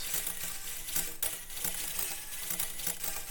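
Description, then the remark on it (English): A synth resonator set to a large wooden box body plays a dense, hissy, clattering texture with repeated hollow low thumps every fraction of a second, steady and fairly loud with no voices. “But I'm going to turn that down really quick so I can show you the sounds from the body section. So first up, we have a large wooden box,”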